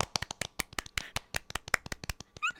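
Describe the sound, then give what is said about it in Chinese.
Rapid, slightly uneven hand clapping, roughly twenty sharp crisp claps in under three seconds, likely from a couple of people, ending with a brief vocal sound. “好，先鼓掌。”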